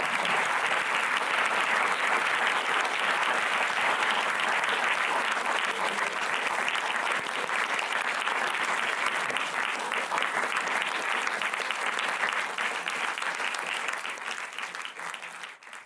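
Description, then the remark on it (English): Sustained audience applause as a vote of thanks, a dense wash of many hands clapping at steady loudness for about fourteen seconds before tapering off slightly at the end, with no voices standing out. “And I wanted to ask us all maybe if we could give a special vote of thanks to that.”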